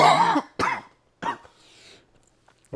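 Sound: coughing and throat clearing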